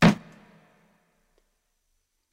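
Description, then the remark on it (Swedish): One gavel knock: a sharp wooden tap with a short, hollow low ring that fades within about half a second, followed by silence. No one speaks. “Vilken, den här klubban är mesig.”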